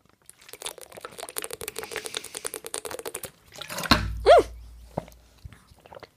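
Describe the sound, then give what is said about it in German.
Fizzy, crackling liquid sounds give way to a sudden loud, boomy knock as a bottle hits right against the microphone, followed by a brief low rumble and a couple of softer bumps. “Ich bin gerade mit der Flasche gegen das Mikrofon gekommen.”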